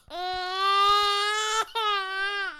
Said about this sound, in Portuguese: E se você escutar algum som de bebê ao fundo